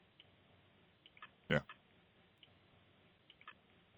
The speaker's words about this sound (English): Sounds like a clock call this. This goes on for a minute.